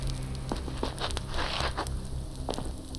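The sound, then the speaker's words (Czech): A steady campfire crackles in a fire pit, scattered sharp pops and snaps over a constant low rustle of burning, with no voices present. “Sedám si k ohništi, abych se trochu zahřál.”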